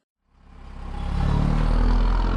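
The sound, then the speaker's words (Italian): A heavy bus engine, heard from inside the bus, starts up and settles into a steady, rumbling idle with a rhythmic low-end throb and faint rattling, without any talking. “La nostra macchina del tempo ci ha portato all'interno di, di un autobus il mezzo è semivuoto”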